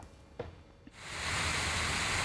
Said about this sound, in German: Wassertropfen, die auf Blätter fallen, ein scheinbar einfacher Vorgang. Doch Tropfen stecken voller wissenschaftlicher Geheimnisse.